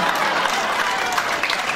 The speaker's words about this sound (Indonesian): Itu baru tepuk tangan.